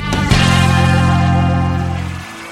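A loud, distorted electric guitar chord struck and left ringing with heavy reverb, a brief burst of live rock band music that sustains for about two seconds, then cuts away.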